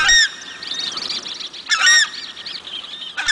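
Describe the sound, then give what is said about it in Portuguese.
Loud, goose-like honking calls of a southern screamer (locally called anhuma), a common species of the Pantanal: three trumpeting bursts at the start, middle and end, with fainter bird chatter continuing in the background between them. “mas tem outros cantos de espécies comuns ali no Pantanal que marcam, como por exemplo o catatal, chororó do Pantanal, é, própria Tanchan, né, que o pessoal chama lá de Anhuma.”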